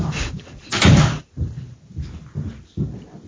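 A door is handled with a loud clunk and rattle early on as it is opened to let a dog out, followed by several softer thuds and shuffling movements, with no talking.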